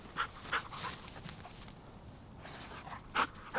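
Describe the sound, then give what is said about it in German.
A hunting dog pants in short, breathy bursts, with a few soft whimpers between the breaths and a quiet outdoor background, during a rabbit hunt on the Fröttmaninger Heide heath at the northern edge of Munich, Germany; no one speaks. “So, also der Hund sagt, da ist nichts drin.”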